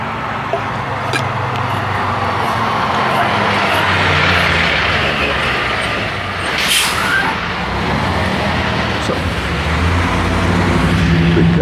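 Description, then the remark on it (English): A heavy truck carrying a few little pieces of equipment rumbles steadily past, its loud engine noise filling the scene, with a brief sharp hiss like an air brake midway. No one speaks. “goddamn truck for just a few little pieces of equipment.”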